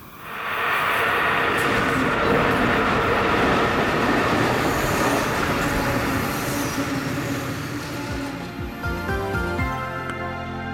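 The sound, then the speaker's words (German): A rail tractor rumbles steadily along the tracks, loud, with a dense mechanical roar; near the end the noise thins and metallic squealing tones emerge over it. “Ein Schienentraktor, wie der verunglückt, hat verschiedene Bremsen, erklärt Hubert Giger vom Verband der Schweizerischen Lokführer.”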